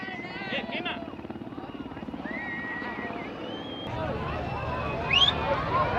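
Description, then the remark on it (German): A helicopter drones overhead in a steady low rumble while dropping gas grenades over a protest clash with police on Industriestraße, with the demonstrators' shouting and babble mixed in and a couple of sharp high whistling sounds near the end. “Der Hubschrauber über uns wirft Gasgranaten ab.”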